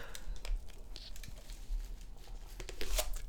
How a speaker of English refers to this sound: Uh, she's using a sort of a punching motion to, to break up the ice. Oh, and the lid has come off.